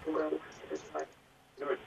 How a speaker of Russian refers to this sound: Пожалуйста, убавьте звук у приемника, иначе мы будем слушать такое эхо